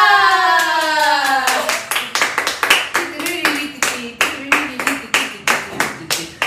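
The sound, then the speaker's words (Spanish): Applause in a steady rhythmic beat: a dozen or so sharp, evenly spaced claps follow a short descending tonal sweep, with a faint voice murmuring underneath. “Son aplausos.”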